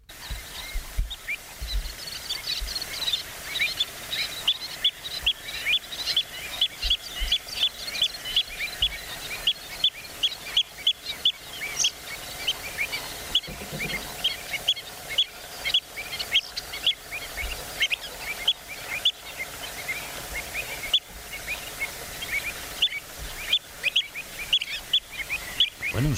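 A dense breeding colony of birds, recorded in Spain, calls nonstop, with many sharp, high chirps from several individuals overlapping in a steady, busy chorus and no voices.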